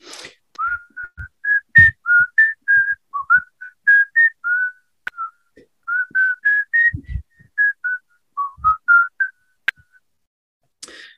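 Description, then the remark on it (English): A person whistles the tune of Yankee Doodle Dandy alone, a steady run of clear, bright notes in a bouncy rhythm, moderately loud, with brief pauses between phrases. “I recently started um, teaching my one year old son a little bit about music, and a little tune came into my head, and it goes like this I'll whistle it for you.”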